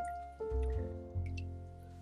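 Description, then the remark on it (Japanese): Wet, squishy squelching as a skein of salmon roe (sujiko), bought that day in Hokkaido, is worked loose by hand, with a few soft bursts of dripping liquid and no talking. “鮭の卵をほぐしながら”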